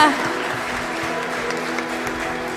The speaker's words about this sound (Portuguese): Aplaudindo, glorificando o nome dEle.